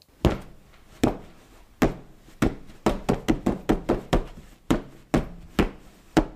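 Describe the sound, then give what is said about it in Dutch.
A fist punches a cushion held on the lap about fifteen times, fairly loud: dull thumps, slow and spaced at first, then a quicker burst of blows before slowing again, as people sitting on bath towels on the floor hit it as hard as they can. No voices. “Wij slaan met ons vuist op dat kussen.”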